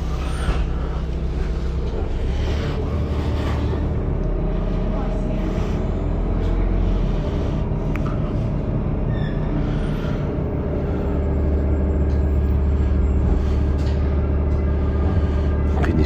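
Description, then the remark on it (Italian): A city bus rumbles up to a stop at Porta Zamboni at 6:50, its deep diesel engine droning steadily with occasional clunks and a brief hiss, while faint voices murmur in the background. “Questo è il famoso autobus che io più di una volta ho contestato tramite ticket alla tipper di essere in ritardo.”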